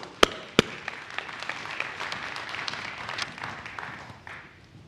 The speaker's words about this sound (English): Have you enjoyed this series? Have you? Have you? If you have, clap your hands. Come on.